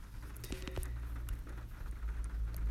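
Light rain patters steadily in the background, a soft continuous hiss with scattered drips and a low rumble underneath, fairly quiet and without any voices.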